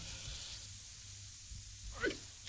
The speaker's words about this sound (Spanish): Además, no, es que yo no digo, no tengo la costumbre de, hmm. estornudar, sino que me sujeto, porque no, no creo.